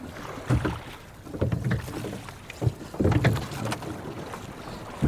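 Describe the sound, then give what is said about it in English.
A team pulls long oars through the water of an estuary, rowing a pilot gig in a steady rhythm, with repeated splashing strokes roughly every second over a background of wind and moving water, with no one speaking. “So, what suddenly happens is that the whole team works together in pulling these long oars that drag us then across the water out into really the heart of the estuary and our destination in this pilot gig we're hoping might be the bar.”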